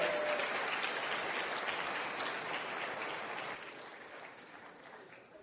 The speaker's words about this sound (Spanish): Quiero que le den un aplauso a las personas de, técnica. Por favor, gracias, muchas gracias.